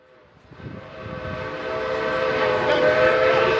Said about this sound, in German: May 2nd, 2010. steam locomotive going by high speed. Oh wow.